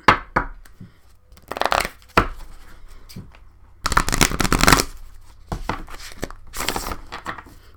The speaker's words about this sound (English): some reason, my shuffling skills suck today, so bear with me.